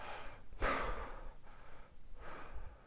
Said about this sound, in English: You even do it with mindfulness of breathing. Grabbing the in breath, breathing in and dropping the out breath